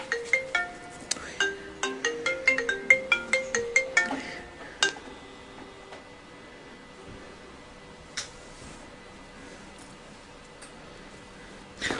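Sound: mobile phone ringtone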